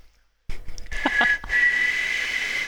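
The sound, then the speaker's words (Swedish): A breathy, wheezing attempt at whistling by a man who cannot really whistle: a rush of air with a thin, wavering tone that barely comes through, lasting about two seconds, fairly loud, with no talking. “försöker vissla fast han inte kan egentligen.”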